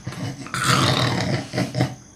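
A deep, rumbling, loud snore from a sleeping deity, starting after a brief quiet moment and rolling on for about two seconds, with two throaty swells near the end.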